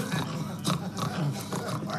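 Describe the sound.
A person growls continuously like an animal, a low, rough, rumbling voice that rises and falls for a couple of seconds, during a game in a TV series scene where players walk on all fours in a circle with their eyes closed.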